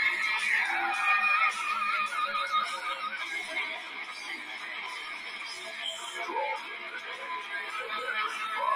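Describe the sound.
Loud, dense groove metal with heavily distorted guitars grinding continuously from start to end, sounding thin and lo-fi with little bass, as if heard through a small speaker.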